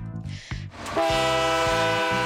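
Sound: train horn sound effect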